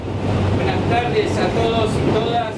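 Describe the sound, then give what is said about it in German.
Steady rumble inside a moving car of the Line D subway in Buenos Aires, with a low droning hum and faint whining metallic tones drifting over it, and indistinct murmuring voices. “steigt der Psychologe Marcos Tarico in die U-Bahn-Linie D von Buenos Aires”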